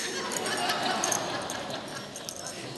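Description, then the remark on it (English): A tambourine is shaken in a steady, continuous rustle of jingles for a few seconds. The sound is moderately loud, and no one speaks. “Listen, I brought one.”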